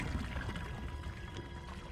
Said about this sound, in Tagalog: Bigla kong narinig na may nagpump ng tubig.